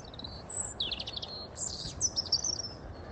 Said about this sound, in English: That's a little robin.